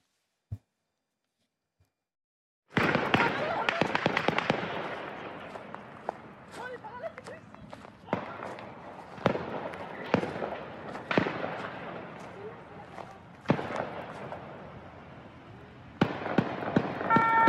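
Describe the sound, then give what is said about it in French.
A dense, sustained volley of gunfire from handguns and assault rifles fired into the air during an evening shooting: rapid overlapping cracks with louder isolated shots standing out, beginning abruptly after a short silence, with faint voices in the background. “des individus qui avaient tiré en l'air avec des armes de poing et des fusils d'assaut”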